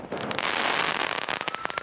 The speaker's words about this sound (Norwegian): Fyrverkeri mot politi, 29 skadde politifolk.